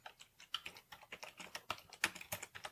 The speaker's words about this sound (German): Ah, ich höre Max tippen.